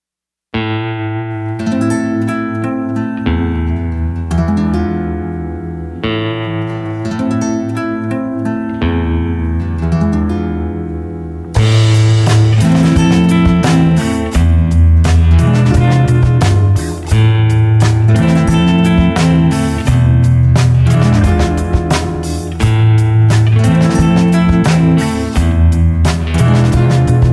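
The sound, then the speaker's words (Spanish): A rock song by a Mexican band with no vocals heard, opening with a sparse, repeating guitar figure before the full band crashes in around the midpoint, growing louder and denser through to the end. “vamos con alguien de acá de México, conocido nuestro, …, …, nos pues le escuchamos”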